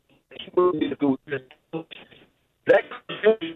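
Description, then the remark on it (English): A thin, narrow-band voice over a phone line keeps cutting in and out, breaking into choppy fragments with abrupt dropouts and a brief silent gap partway through. “Your phone's breaking. All up.”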